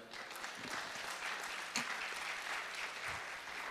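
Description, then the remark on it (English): Steady audience applause, given as a round of applause for God, fills the whole stretch, a dense wash of many hands clapping at an even level, with one slightly louder burst midway and no voices standing out. “You miss your cue to give God a round of applause there.”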